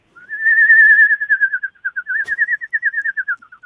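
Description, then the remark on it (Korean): An eerie, wavering whistle, fairly loud, holds one sustained note before breaking into a string of short, quivering pulses that slide gently in pitch. There is a brief click midway, and no voices. A whistling sound effect for a ghost's appearance, as used in games. “그 뭐 게임이나 이런 데서 휘파람으로 예. 휘파람 소리 같은 걸 이렇게 귀신 등장할 때 한번 들어볼게요.”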